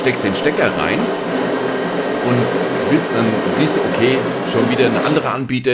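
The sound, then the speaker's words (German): A coffee machine whirs and hums steadily in the background, a continuous mechanical drone running under a man's ongoing speech, then cutting off near the end. “Das Geräusch, was ihr hört, ist die Kaffeemaschine.”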